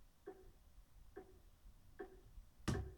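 An Apple screen reader's dull thud error sound, signalling that a two-finger scrub gesture on the screen does not work, plays three times at an even, steady pace, soft and muffled, followed by one sharper, louder tap at the end. No one speaks.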